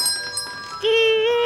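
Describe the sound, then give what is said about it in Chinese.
A single bright, sustained electronic chime rings out loudly for about half a second after a faint, quieter tone, a sound effect for opening the door of a snack shop. “前面“滴”一声是 开门， 门坏了。”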